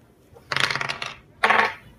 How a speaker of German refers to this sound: Ja, also soll ich würfeln? Ja, genau, ihr könnt ruhig würfeln.